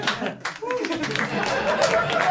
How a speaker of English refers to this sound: Polite clapping for impending nuptials. Impending nuptials.